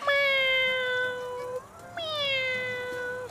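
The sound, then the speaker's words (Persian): Two long, drawn-out cat meows in close succession, loud, each with a sustained wavering tone and a brief pause between them. No one speaks. “من منظورم اینه که گربه ها اعضای صورت زیبایی دارن چشمان زیبا بینی دهنشون صوت بسیار زیبایی دارن”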